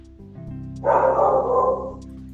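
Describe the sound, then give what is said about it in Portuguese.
A dog barks in one dense, roughly second-long burst, fairly loud, in a house, over a low steady background hum, with no one talking. “E o Bruno tá latindo agora, Brad?”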